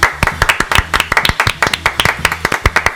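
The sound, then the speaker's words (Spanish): Applause from a small group: loud, sharp hand claps in a quick, uneven patter that continues steadily for a few seconds, with no voices over it. “Aplaudan.”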